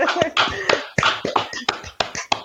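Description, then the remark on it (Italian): Brief applause from what sounds like a few people, a steady run of sharp, bright hand claps at a quick, slightly uneven pace, fairly loud, with no voices. “applauso. Assolutamente.”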